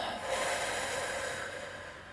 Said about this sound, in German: Und dann atme einmal tief ein und wieder aus. Und nochmal tief ein. Und wieder aus.